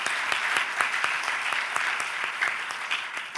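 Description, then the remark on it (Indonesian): A church audience applauds steadily for the Lord Jesus, many hands clapping at once in a dense, even patter of sharp claps, sustained at a constant loudness with no voices speaking. “Berikan tepuk tangan bagi Tuhan kita Yesus.”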